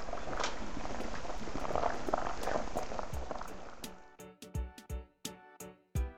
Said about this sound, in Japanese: はい、先ほどのかぶらがごつごつ踊ってきてます。はい、いい音してます。